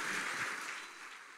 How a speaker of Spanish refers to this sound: Dale el aplauso al Señor por esta primera vida.